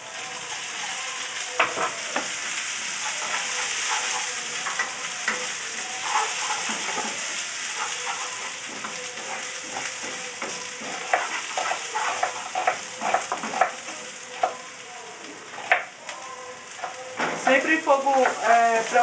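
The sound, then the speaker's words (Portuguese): Shredded coconut fries steadily in a hot pan that heats well, over a very high flame, while a utensil scrapes and stirs it in quick, irregular strokes, the clatter growing busier toward the end; fairly loud, with no talking. “A panela que é aquece bem, então vai receber bem o coco para fritar mais hum.”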